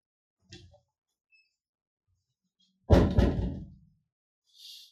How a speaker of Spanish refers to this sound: déjenme cerrarle poquito a la puerta.